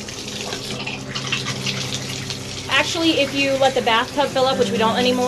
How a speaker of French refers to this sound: En fait, um, si vous laissez couler l'eau, elle devient bleue.